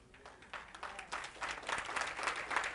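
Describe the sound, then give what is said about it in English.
A group claps their hands in a steady, building patter of many overlapping claps, growing louder over a few seconds with no talking. “I'm going to wait while you all clap your hands because that's true.”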